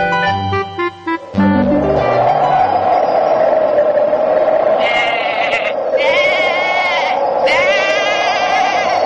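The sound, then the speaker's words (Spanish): Several sheep bleat in overlapping, wavering cries over a steady crowd-like murmur of the flock, loud, after a brief plucked musical intro at the start. “Había una vez un pastorcito que tenía a su cargo todas las ovejas del pueblo.”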